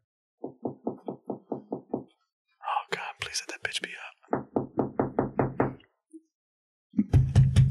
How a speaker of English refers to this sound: I'm knocking on that mother like the fucking police, bro.